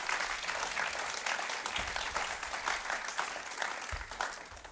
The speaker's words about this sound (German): Und geben wir ihnen einen grossen Applaus, dass sie hier auf der Bühne sind.